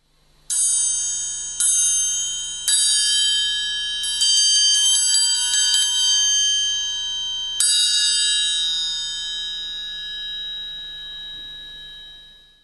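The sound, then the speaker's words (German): A triangle rings out with three separate strikes, then a quick rattling roll, and one final hit that shimmers and slowly fades. The bright metallic tone is clear, with no voices. “Also jetzt nehme ich erstmal eine Triangel.”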